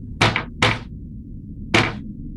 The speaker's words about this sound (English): Um, and eventually, as he keeps walking, you reach through this like metal door in front of you with two lanterns in front of you. At this point, the robed figure sort of like walks up to the door and knocks.